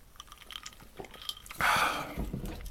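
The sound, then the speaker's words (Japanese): Quiet mouth sounds of someone sipping tonic water that has lost most of its fizz: small wet clicks and smacks, then a louder, breathy gulp and swallow midway, with no talking. “はいというこんなのを飲みながらちょっと喋っていこうかなと思いますね”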